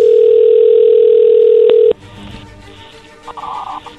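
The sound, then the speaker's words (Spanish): A steady, loud telephone dial tone as a call is placed holds a single pitch for about two seconds, then cuts off abruptly, leaving a quieter line with faint clicks and a brief higher beep near the end. “A ver, ahí ahí entró la llamada, llámale, lobo.”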